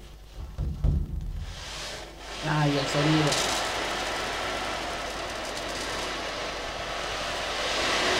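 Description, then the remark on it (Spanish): A frame drum with one synthetic head and one animal-skin head is tilted so its beads roll across the head, making a steady, hissing wash like rain or surf that swells gradually. A voice speaks briefly just before it starts. “Esto es como un tambor de marco donde tiene un parche sintético y un parche animal.”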